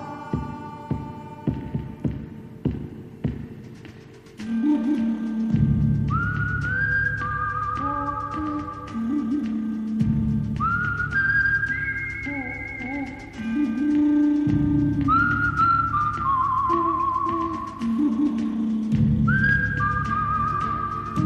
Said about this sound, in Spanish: Es de una película. El bueno, el malo y el feo, de Sergio Leone interpretada por Ennio Morricone.